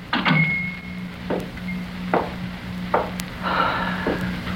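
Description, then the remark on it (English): A door swings shut with a solid knock, followed by a few softer wooden bumps and clatters spread over several seconds against a steady low hum. No one speaks. “Close the door.”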